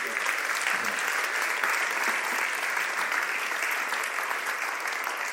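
An audience applauds steadily, many hands clapping in a dense, even wash of sound that holds at a fairly loud level for several seconds without speech.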